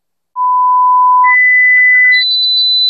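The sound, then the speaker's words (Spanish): Three loud, steady electronic beeps in an advertisement for Sonofim from Pharma OTC run together without pause, each one sustained and jumping higher in pitch than the last, ending on a shrill high tone. No one speaks. “Pitidos, Sonofim.”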